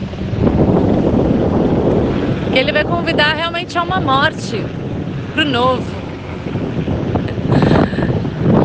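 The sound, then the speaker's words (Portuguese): Steady, loud wind rumble on a beach blusters against the microphone, with a broad wash of the sea underneath, while a person speaks over it throughout. “E aqui na praia, com barulho do vento, do mar, passa um helicóptero, é claro, a tecnosfera está aqui também, né?”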